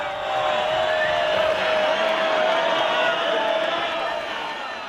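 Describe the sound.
A large bullring crowd boos loudly and continuously, a dense wall of jeering voices with a steady whistle-like tone running through it, holding for about five seconds before easing slightly.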